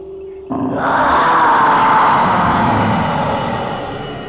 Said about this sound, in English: A hideous scream pierced the tense silence aboard the TARDIS. The Guardian's penetrating thought waves brought the creature to a trembling heap of miserable agony.